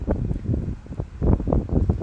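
Gusty wind buffets an outdoor microphone on a very sunny day outside the lobby organisation of the Dutch arms industry, producing a loud, uneven low rumble that surges and fades in irregular bursts, with no voices present.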